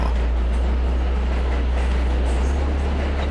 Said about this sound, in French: Il entendit le train dans le lointain, et le bruit s'amplifia, s'amplifia encore.